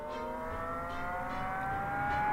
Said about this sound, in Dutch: De motor achter haar rug kermde dat horen en zien verging.